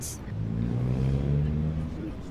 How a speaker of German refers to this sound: Man hört zwar den Verkehrslärm sehr laut, aber ich finde es trotzdem sehr angenehm hier.